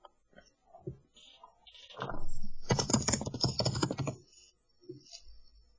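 Rapid, loud clatter of computer keyboard typing, a dense burst of keystrokes lasting a couple of seconds, with a few softer taps before and after.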